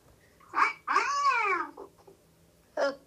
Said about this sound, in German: Ich habe ja einen Katzen-Sound gefunden. Vielleicht geht da meine Katze weg. Ich lasse sie mal abspielen.